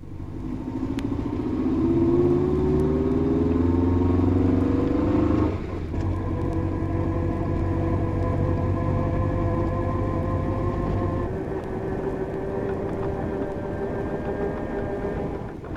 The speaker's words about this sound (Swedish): the crown wheel and pinion will have to be replaced as a pair. and now the back axle whine.